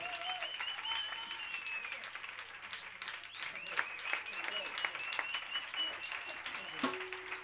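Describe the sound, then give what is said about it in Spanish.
Sustained audience applause for a choir, a dense steady patter of many hands clapping with a few sharper claps standing out, holding at a fairly even level throughout before a brief shift near the end. “aplauso para este coro que tenemos aquí, por favor.”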